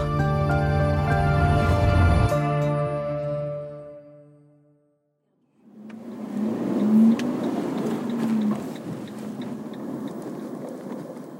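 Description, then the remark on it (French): A sustained tonal sound fades into a brief silence, then a car's low engine rumble and road noise swell in and carry on steadily, fairly loud, with no one talking, as the car comes to a stop in a small village in the Normandy countryside. “La voiture s'arrête dans un petit village de la campagne normande.”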